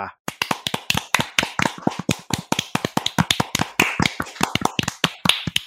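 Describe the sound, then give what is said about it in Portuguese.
Applause: a steady run of sharp, crisp claps, quick and slightly irregular, keeping up for several seconds at an even loudness with no voices over it. “uma é salva de palmas profissional, né, do que fez o laudo, né?”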